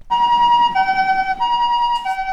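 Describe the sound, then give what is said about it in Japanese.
A standard, conventional ambulance siren, the kind still used in daytime, blares loud, its two-tone pitch switching back and forth between high and low notes, with no talking over it. “うね、はい、これが普通の通常のサイレン音です。”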